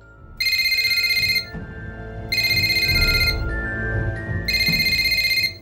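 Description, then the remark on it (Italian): A telephone rings in three bright, buzzing bursts of about a second each, separated by short pauses, loud over a low rumbling background, as a man repeatedly calls a woman while speeding away in his car. “Mentre guida all'impazzata, Santino chiama nuovamente Anna Rita, più e più volte”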